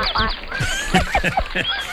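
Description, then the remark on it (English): A spruce grouse calling: a quick series of short, nasal, clucking notes repeated in an uneven rhythm, fairly loud, with no one talking over it. “What do you, what, what do you say the bird is? The spruce grouse.”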